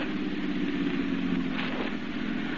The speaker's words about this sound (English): The car turns up the tree lined driveway.